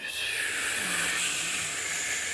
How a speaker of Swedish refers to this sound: Mm, andas in. Och andas ut